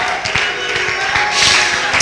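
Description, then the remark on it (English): A church audience claps and shouts praise to the Lord together, a dense, loud wash of hand claps and raised voices continuing for the whole two seconds. “Clap your hands and shout to the Lord.”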